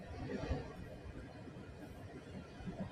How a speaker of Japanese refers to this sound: 車ですよ。暑い今日何これ。エアコンの音がうるさいね、きっとね。よいしょ。それでさ、まあ、そんな感じなのよ。エアコンの音うるさいでしょごめんなさいね。窓を開けると花粉がさ、入ってきて、車の中真っ白になっちゃうから。よいしょ。よし。暑い今日。エアコンの音うるさいでしょ、きっと。